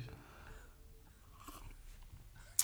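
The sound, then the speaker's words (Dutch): Someone takes a quiet sip of a drink, with soft mouth and swallowing noises, a brief slurp in the middle, and a sharp little tap at the very end. “Ja, ik neem nog een slokje.”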